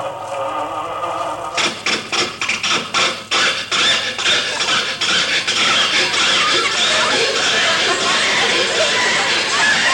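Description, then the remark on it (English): An old car engine tries to start as Mr. Benny starts the car: a quick run of rhythmic cranking bursts, then a long, loud, harsh sputtering and wheezing that never catches into a steady idle. “Hmm, the, uh, the motor must be cold.”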